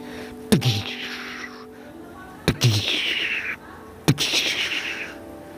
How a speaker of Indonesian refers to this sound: Suara tembakan terdengar, si kelinci pun terperanjat terkejut.